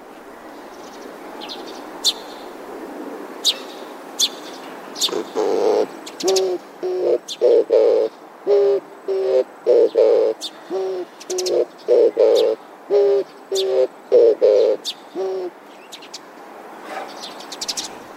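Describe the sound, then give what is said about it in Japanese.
An Oriental turtle dove repeats soft, low courtship coos in a steady rhythmic series while rhythmically bobbing its head up and down in a courtship dance, with faint chirps of other birds sounding sparsely in the background. “守備よく間合いを詰めたらおもむろに首から上をリズミカルに上下させてダンスのスタートです遠くから見ると鳩がスクワット運動をしているようにも見えますこのダンスに合わせてほんわほんわかと歌うのです”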